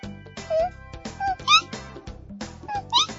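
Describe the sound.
A voice imitates a frog's high, whistle-like, electronic-sounding call, producing several short rising and falling chirps in a quick, uneven series over a low, steady pulsing background.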